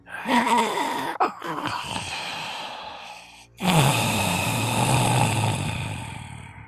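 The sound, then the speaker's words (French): Heavy breathing from a single creature: a long, rasping breath, a brief pause, then a second loud, airy exhale that slowly trails off. No one speaks. “Et cette même respiration que t'entend en écho en dizaines, en centaines devant toi, devient unique.”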